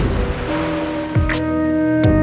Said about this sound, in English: Bring me the ocean.